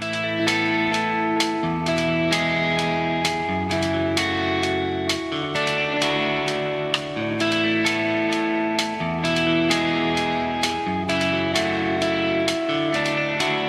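A new Spanish pop-rock song: a full band plays steadily, with driving drums hitting in a regular beat, strummed guitars and bass chords shifting every couple of seconds. Loud and continuous, no singing yet.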